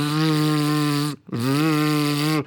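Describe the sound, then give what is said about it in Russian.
An electronic blood pressure monitor's pump whirs as it inflates: a loud, steady motorized buzz that stops briefly after about a second, then resumes for another stretch. “И я в момент записи выпуска, я пытаюсь понять, а можно купить какой вот нету вот машинку, которая вот этот”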